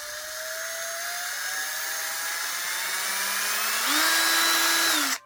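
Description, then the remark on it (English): An electric power tool, recorded as raw sound material for a film's sound design, whirs steadily with a buzzing motor whine that slowly climbs in pitch, then jumps higher and louder for a final second before abruptly cutting off. No one speaks. “We did all these sort of musical object recordings, drones, and electric tools.”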